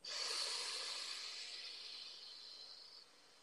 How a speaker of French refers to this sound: On sent l'air sortir du poumon. L'idée, c'est d'expérimenter le relâchement. Sentez tout votre corps qui se relâche.